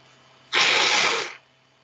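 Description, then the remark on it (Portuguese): A single sharp sneeze bursts out, a harsh breathy blast lasting under a second, with a faint steady hum underneath and quiet before and after. “Saúde. Obrigado.”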